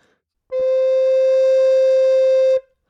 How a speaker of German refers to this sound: Würde jetzt für beides, würde ich sagen, klingt nach Flöte.